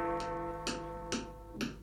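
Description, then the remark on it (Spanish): A clock ticks four times at an even, steady pace, each tick crisp and clear, over a sustained droning musical tone in the background. “Vino a casa un gran señor, tic-tac, tic-toc.”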